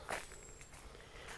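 Footsteps crunch over a shell-covered path outdoors as someone walks on a fresh, cloudy summer day, a couple of gritty crackling steps with a faint thin whistle-like tone in the background.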